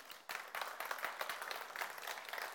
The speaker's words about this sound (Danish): Vi klapper af Gud. Han er god.